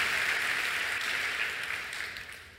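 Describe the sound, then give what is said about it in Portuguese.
An audience claps together in a dense, steady burst of applause for words from a Bible passage being read aloud, then begins to thin and soften slightly toward the end. No one speaks over it. “Pode aplaudir sem medo, né?”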